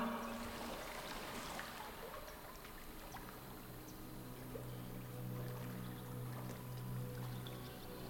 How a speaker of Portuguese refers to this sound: Isso? É água.